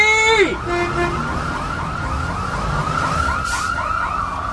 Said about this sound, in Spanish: Sonidos desconcertantes entre sirenas de patrullas y ambulancias, las motocicletas y algunos helicópteros.